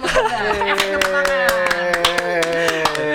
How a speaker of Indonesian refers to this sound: Ayo tepuk tangan